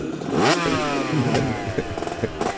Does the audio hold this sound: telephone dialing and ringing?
no